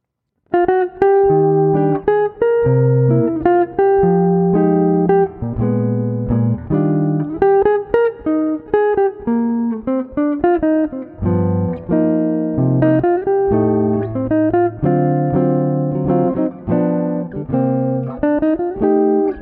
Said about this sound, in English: Okay, so first things first, let me just play through the, the song, the melody of it for you, so you can hear how it goes.